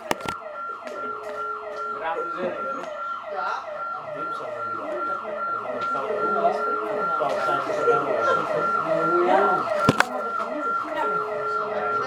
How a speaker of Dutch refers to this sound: Nou mensen, we hebben een kleine stop. We hadden alarm af, maar eh, we bellen even iemand op.